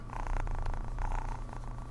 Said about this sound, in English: I don't know if you can hear this, but my cat's purring. Listen.